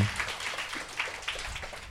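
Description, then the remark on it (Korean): Scattered applause from a small crowd, a steady crackle of many hands clapping at once at a fairly soft level, continuing evenly for a couple of seconds with no voices. “박수가 막 아, 박수 주세요, 아.”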